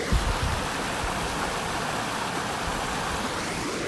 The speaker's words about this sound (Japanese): こちら三条川というね川のほとりであのお話をさせていただいておりますちょっとこう川のせせらぎとかがね聞こえますでしょうかねどんな感じでしょう声しか聞こえてないですかね